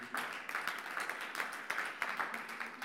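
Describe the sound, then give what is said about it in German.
A church audience applauds steadily, many hands clapping in a dense, continuous patter with small rises and dips in loudness throughout, and no speech on top. “Jetzt der Applaus schon mehr.”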